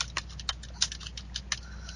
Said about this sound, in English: Yes, you hear typing back there, people.